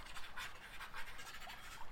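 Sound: pen scribbling on paper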